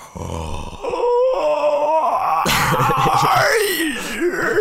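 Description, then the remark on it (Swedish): A voice imitates the ghost's croak from the horror film The Grudge, a rough, creaking rattle that swells into a strained, wavering groan, loud, lasting several seconds without any words. “Grudge-ljud.”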